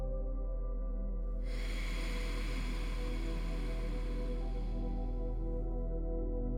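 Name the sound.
deep inhale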